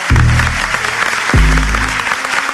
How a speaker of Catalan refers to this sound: I ara deixem que parli amb la increïble Elisabet Born. Una aplaudiment per ella.